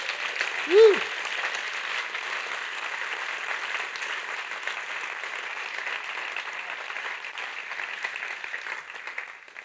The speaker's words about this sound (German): Geben wir denen mal gut Leiterinnen und Leiter mal einen riesen, riesen Applaus.